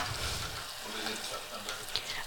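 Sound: tap water running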